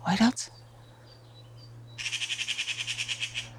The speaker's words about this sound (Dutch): Ja, dat is een ekster. Oh, die, er is hier een ekster heel laag aan het overvliegen.